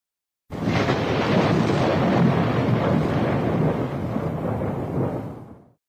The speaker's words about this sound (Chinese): 只见子牙双手一拍，霹雳交加，咔啦啦一声巨响。